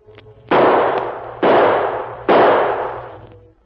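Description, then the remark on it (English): Three loud gunshots fire in steady succession, roughly a second apart, each a sharp crack trailing off in a long, fading roar, over a faint low hum. “Three more shots.”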